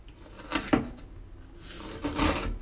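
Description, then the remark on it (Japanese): A few knife chops land on a wooden cutting board while mincing food: two thuds early, a pause with faint background noise, then a couple more knocks near the end, moderately loud. “こうやってあのなんか良くないですかこのまな板のなんかまな板に包丁でこうトントンする音がね入るのってこういわゆる ASMR 的で結構良くないですか僕ねこういうの好きなんですよね”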